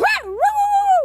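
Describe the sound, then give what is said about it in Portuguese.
A person's voice imitates a small dog, giving a quick high yip that slides down and then rises into a drawn-out, whiny howl, fairly loud. “ela vai na sacada, ela escuta o cachorro latindo, ela vai na sacada, começa a latir, vira aquela sinfonia de.”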